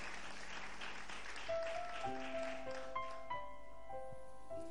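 A church audience claps steadily as an applause to the Lord, a dense, noisy wash of applause that gradually thins out, while sustained keyboard chords rise beneath it and ring on alone at the end.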